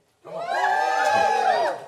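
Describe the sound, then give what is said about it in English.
A church audience bursts into loud cheering and yelling after being asked if they are fired up for church, a sustained wall of many overlapping voices that swells at once and holds steady for nearly two seconds before tapering. “I could probably ask anything right then, you guys would just start yelling.”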